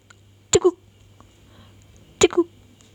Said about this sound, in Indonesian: … mulai cegukan. Makin dia takut, makin sering dia cegukan.